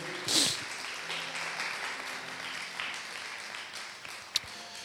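An audience applauds steadily, a dense crackling wash of many hands clapping at once, with a brief louder burst near the start and a sharp single clap near the end.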